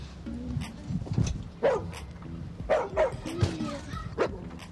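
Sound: dog barking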